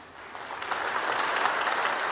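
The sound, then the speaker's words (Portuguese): A church audience breaks into steady applause for the Christian women of the church, many hands clapping together in a dense, sustained patter that swells slightly and holds without any talking. “Vamos aplaudir as nossas queridas irmãs, amados.”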